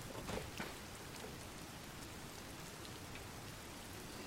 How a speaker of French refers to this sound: En plus il pleut, je peux pas grimper.